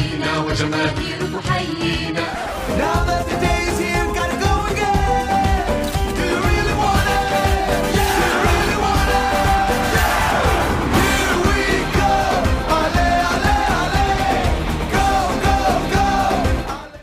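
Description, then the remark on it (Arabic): An upbeat pop song from the 1998 World Cup in France, sung in Spanish and English, plays loudly and steadily. It has driving percussion, bright brass-like melodies and energetic shouted vocals, kicking into full force after a brief quieter opening. “ونروح لأغنيتنا الثالثة من أعظم أغاني كأس العالم”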